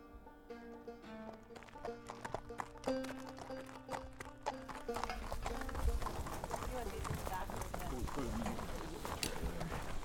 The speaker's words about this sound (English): load saddles and horses into the trailer and get ready to go. They talk quietly, organizing, deciding which horses to bring.